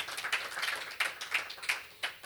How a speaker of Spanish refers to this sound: damos un aplauso a nuestro Dios. Sí.